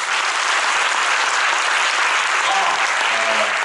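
Steady, dense applause from a crowd at a business event, welcoming two founders, fills the whole stretch, loud and continuous with a bright crackling texture and no pauses.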